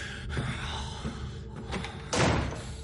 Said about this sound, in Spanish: Él cierra la puerta y echa el pestillo.